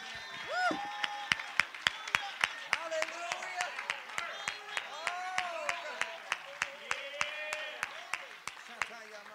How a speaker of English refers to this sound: Well, oh, somebody ought to clap your hands to the Lord.